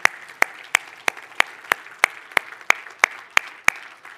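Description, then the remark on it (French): An audience claps together in a steady, even rhythm, about a dozen sharp claps at a brisk beat over a constant hum of room noise, with no talking, applauding the volunteers of a church ministry. “moi, je pense que ça mérite une main d'applaudissement maintenant pour nos bénévoles qui travaillent fort.”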